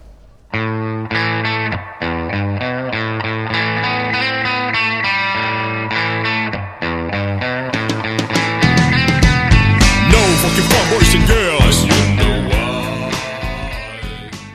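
A disco song plays loudly and steadily on the radio show La Cochinilla Eléctrica, starting with sustained, layered chords before building into a fuller, brighter arrangement with busy percussion and shimmering highs in the second half.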